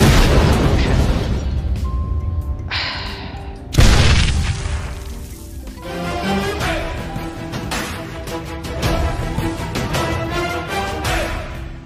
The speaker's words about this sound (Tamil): அப்படி நம்ம கரோலியை கிரானைடை தூக்கி அந்த பாம்பை தூக்கி வீச சொல்லும் போது அந்த பாம் வீச போகும்போது நம்ம கரோலி கையிலேயே அந்த பாம் மாட்டிக்குது மாட்டி அந்த பாம் அவர் கையிலேயே அங்கே வெடிச்சிருது